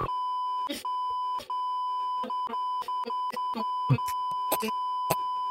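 A steady, high-pitched censor bleep drones through the whole stretch over a swear word, loud and continuous, while clipped fragments of a voice break through in short choppy bursts around it.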